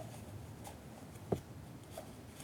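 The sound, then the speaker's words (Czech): A single short, soft papery rustle rises briefly out of a quiet room tone as a paper slip holding a set of three questions is drawn from a small box; faint handling noises surround it, with no one speaking. “Jsou tam sady tří otázek, eh, prosím si jednu vylosujte. Jeden papírek, který potom odevzdáte mně.”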